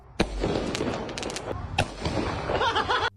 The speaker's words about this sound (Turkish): Bursa'da ise havai fişek yüzünden tehlikeli anlar yaşandı. Peş peşe fişek atıyorlardı ancak fişeklerden bir tanesi gencin elindeyken patladı.